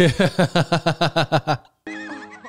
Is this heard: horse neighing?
yes